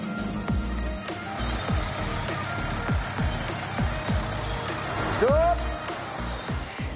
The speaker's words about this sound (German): Sind Haferflocken und Mehl fertig, kommen wieder Lkw angefahren.